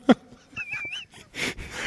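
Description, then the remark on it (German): Heavy breathing with a thin, wheezy whistle on one breath, then rough, noisy puffs of air, as a person pants and huffs while moving back and forth searching for electricity; a brief knock comes at the start. “Ich höre dich die ganze äh. Zeit nur schnaufen und hin und her und was.”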